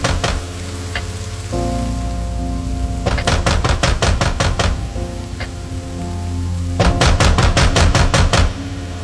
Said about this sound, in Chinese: 本来孟浩然的房子比较空旷，电闪雷鸣混合暴雨的轰鸣声。加上这急促的砸门声，更是增添了几分恐怖的气氛。